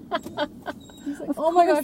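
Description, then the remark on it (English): A dog named Dirk whines excitedly in high, wavering cries near the end, excited about the dog park, following a burst of laughter and casual talk from a person. “I have to whine really loud just in case they yes. hear me. I want to go play.”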